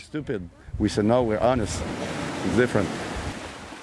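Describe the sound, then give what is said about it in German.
Waves wash onto a beach below red sandstone cliffs on the Îles de la Madeleine in a steady, broad roar that carries on after a voice briefly speaks over it near the start. “Wir stehen am Strand, hinter uns ragen die roten Sandsteinfelsen nach oben.”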